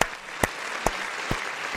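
Applause with a steady rhythm: five sharp, evenly spaced claps stand out over a continuous wash of hissy background clapping, at moderate loudness and with no voices.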